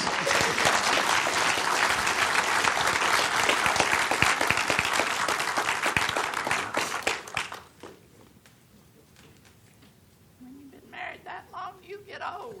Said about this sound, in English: Well, thank you. You guys give them a round of applause.